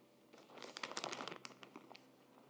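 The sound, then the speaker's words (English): A clear plastic pasta bag crinkles and rustles as it is picked up from a table and handled, a dense burst of crackling that trails off into a few scattered crinkles. No one speaks. “I bet you Peppy's going to come running out because whenever she hears some kind of bag rustling, that's what she does.”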